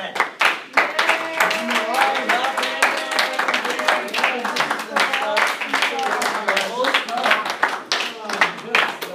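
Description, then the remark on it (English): Sharp hand claps ring out repeatedly and unevenly across the whole stretch, fairly loud, with several voices talking and exclaiming over them throughout. “Hand clap.”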